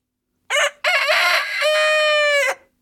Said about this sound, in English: I got a rooster here. I got a rooster right here in the control room to wake you guys up.